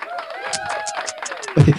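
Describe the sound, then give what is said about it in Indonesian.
An applause sound effect: a quick, steady run of bright claps patters along under a person talking, with a louder thump near the end. “Ini ada efek tepuk tangan tadi”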